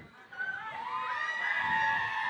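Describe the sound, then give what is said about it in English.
A crowd at a party screams together on cue in sustained, high-pitched wails that swell after a brief pause and hold loudly for a couple of seconds. “All the tight pussy girls them I want you scream.”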